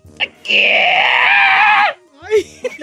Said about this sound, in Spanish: ¿Está bien, señor? Sí. Nomás que estoy gritando desde lo más profundo de mi ser, de mis ser.